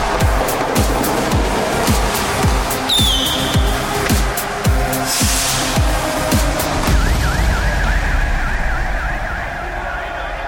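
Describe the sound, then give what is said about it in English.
In an arena, a rapid, steady string of loud pyrotechnic bangs fires off for several seconds during a wrestler's entrance, followed by a wavering electronic siren-like tone over a roaring, noisy background. “Blimey, he's got more pyro than Sting, that lad.”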